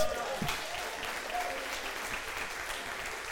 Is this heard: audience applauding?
yes